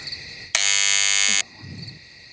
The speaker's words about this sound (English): Okay, hit the buzzer.